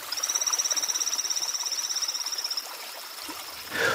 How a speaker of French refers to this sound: Contrairement aux appels en ultrasons des chauves-souris, des cétacés à dents et des souris, les chants des grenouilles des torrents ont aussi une composante qui nous est audible.